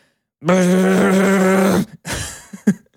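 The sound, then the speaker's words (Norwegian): A voice imitates the loud, steady electrical buzz of aluminium foil rattling on a switched-on induction hob plate, a harsh droning hum held for about a second and a half, followed by a short burst of breathy speech. “og så rista som pokker i den eh, aluminiumsgreia, og så begynte det å ryke litt.”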